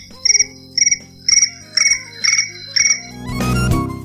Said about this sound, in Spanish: Grillos. Grillos. Seleccionado. Grillos.